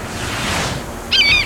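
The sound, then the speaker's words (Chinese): A loud rushing wash of ocean waves surges and then fades, followed by a brief, shrill, warbling bird-like cry over the steady roar. No one speaks. “有一只小猫咪又被海浪卷走了啦！”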